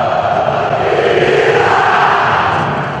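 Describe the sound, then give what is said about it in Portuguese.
A huge football crowd chants in unison inside a stadium, a homophobic chant aimed at a rival goalkeeper during a goal kick; a dense, loud, sustained roar of many voices that holds steady for a few seconds and dips slightly at the end. “Isso aí é uma torcida de futebol entoando um grito homofóbico contra um goleiro rival na hora de um tiro de meta.”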